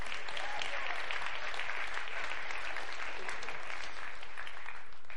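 A crowd bursts into steady applause as a hand clap to God, many hands clapping in a dense, continuous patter that holds at an even loudness for about five seconds.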